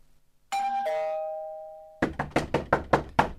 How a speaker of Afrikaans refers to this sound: Hy kan klop tot hy flou word. Ek maak nie vir hom oop nie.